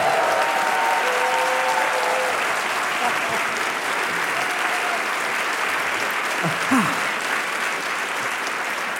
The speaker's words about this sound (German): Im Gegenteil, der Saal ist voll und ein zaghaftes Klatschen habe ich schon gehört. Das geht bestimmt noch besser.